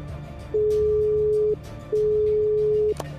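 Two steady, mid-pitched electronic beeps, each about a second long with a short pause between, as a telephone call is hung up, over a low background hum.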